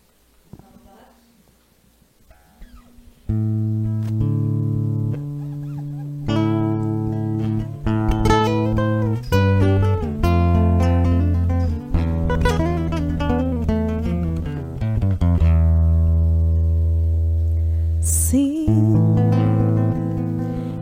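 After a quiet few seconds, a music track kicks in loud and full, with deep sustained bass notes under a bright, shifting melodic line that plays steadily to the end.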